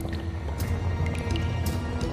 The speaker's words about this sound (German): ich fasse nicht, dass wir endlich in den Minen sind. Die hört jetzt auch schon so leicht tropfen.